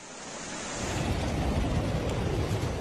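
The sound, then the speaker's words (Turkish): A powerful, continuous roar of water released through the opened floodgates of the 19 Mayıs dam in Samsun, overfull after rain, about 600 cubic metres per second, swelling in the first second and then holding steady and loud with deep rumbling, no voices present. “Doluluk seviyesini aşan barajın suyu kapaklar açılarak boşaltıldı. Saniyede yaklaşık 600 metreküp akan su şelale görüntüsü oluşturdu.”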